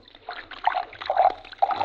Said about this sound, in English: Where's that bottle of yours? Right here. Why? You'll see. Start pouring. Hmm, okay. Say when.